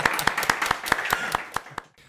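Steady, brisk hand clapping, around ten sharp claps in an even rhythm over a low murmur of background noise, stopping abruptly just before the end.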